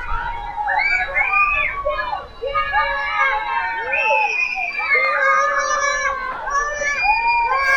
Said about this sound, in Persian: خدایا چی کار کنم از دست اینا بچه ها بچه ها خواهش کردم ازتون نمیشه آروم تر بازی کنی؟ نه نمیشه اگه میشد که آروم تر بازی میکردم کی تو حالا دیده بیستی تا بچه تو کوچه جمع بشن و آروم بازی کنن تا هوا تاریک نشه ول نمیکنن